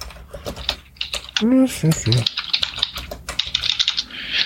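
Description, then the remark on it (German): Rapid, uneven clicking of keys on a computer keyboard continues throughout, fairly crisp, with a brief murmured voice breaking in partway through. “Das mit dem Tippen, da bin ich einfach immer zu schnell.”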